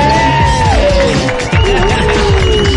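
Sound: crowd cheering and whooping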